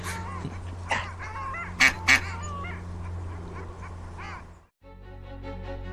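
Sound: ducks quacking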